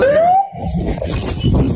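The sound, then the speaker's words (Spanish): A police siren rises in a short, clear wail at the start, then gives way to a dense, noisy street background with a murmur of indistinct voices. “Ahí se oyen las, sirenas.”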